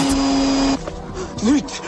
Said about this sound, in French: l'aspirateur, j'ai oublié de l'éteindre.